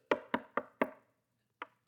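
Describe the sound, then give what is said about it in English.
Visiting pastoral staff knock on a door: four quick, evenly spaced knocks, then a brief pause and one final knock. The raps are solid, with no voices present. “I don't know why somebody's knocking.”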